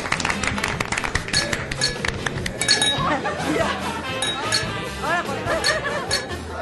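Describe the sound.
Several glasses clink together in a toast at a farewell party, a quick, bright flurry of ringing taps, as a group of people talk and cheer over and around them.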